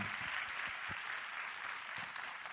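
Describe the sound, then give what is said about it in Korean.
A crowd bursts into big, sustained applause for the show's sponsors, a dense wash of many hands clapping steadily and loudly throughout, with no voices standing out above it. “이 모든 분들 대박 나시라고 여러분 아낌없는 큰 박수 부탁드리겠습니다.”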